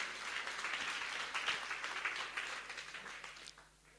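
A sizable audience applauds with dense, steady clapping that holds for several seconds, then thins and fades toward the end, giving another round of applause for someone's courage.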